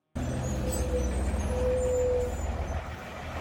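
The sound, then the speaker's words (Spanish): A city bus with air brakes in the capital rumbles heavily, its engine droning low while a thin brake whine rises briefly twice over steady hissing air, with no one talking. “Mira, los autobuses de la, de la capital no están mal.”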